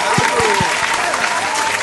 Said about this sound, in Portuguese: honra pra Palmas, né? palmas pra convidado.